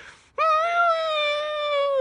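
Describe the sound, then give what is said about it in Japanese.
A person's voice lets out a sustained, high, tonal whine for about two seconds, imitating a whimpering puppy; the cry is steady, sliding slightly downward in pitch. It comes from a member on the tiered stage during Ogawa Aya's segment. “うーっていう子犬みたいな声出ましたね。”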